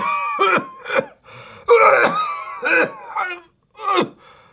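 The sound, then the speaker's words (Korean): An elderly man, a grandfather lying in an attic room on a winter day, coughs repeatedly: about seven hoarse, strained bursts in an uneven rhythm, some drawn out into groaning rasps, fairly loud with short pauses between. “근데 그러던 어느 겨울날 다락방에 누워 계시던 할아버지가 계속 기침을 하셨다.”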